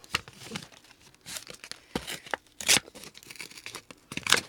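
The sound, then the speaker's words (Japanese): The packaging around an upscale tin of oil sardines is torn open in a series of short, crinkly rips. Two sharper, louder tears stand out near the middle and the end. “これどうやって開けるんだろうちょちょっとビリッ”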